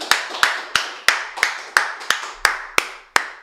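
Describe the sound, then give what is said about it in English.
A few people in a studio clap for MC Conrad in a steady, even rhythm, about ten sharp, loud claps roughly three per second, with no cheering or voices. “Can we just make some noise in the studio?”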